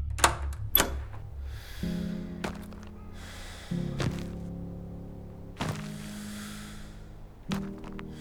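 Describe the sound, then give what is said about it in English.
A series of heavy wooden thunks, like a door being swung open and knocking, arrives in uneven bursts, with a low droning hum and hiss lingering between the impacts. “Tep didn't hear the rest as he reached for the door and swung it open.”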